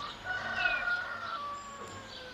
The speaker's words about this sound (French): Ce village posé au creux de la vallée, c'est Hier-sur-Avre, à 100 km de Paris. Il est l'une des portes d'entrée de la Normandie. Ces oiseaux blottis sous les frondaisons, n'est-ce pas une certaine image de paradis